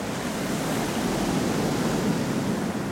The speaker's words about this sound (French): Regarde là, la diversité des bruits que tu entends. Enfin, il y a, il y a des, des sons différents. Tu vois, la force des vagues, là, regarde, elle roule, tu vois, et elle roule comme ça.